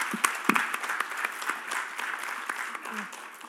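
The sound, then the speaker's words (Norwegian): An audience in a church audience breaks into applause for a woman, a dense patter of many hands clapping steadily for a few seconds, moderately loud with no clear voices over it. “Ja, og da Ja, en klapp for henne”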